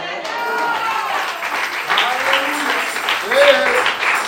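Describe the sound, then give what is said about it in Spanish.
An audience applauds in a steady, dense wash of clapping that lasts throughout, with voices calling out and speaking over the applause. “Pero acompañe ese aplauso con gloria a Dios, con amén.”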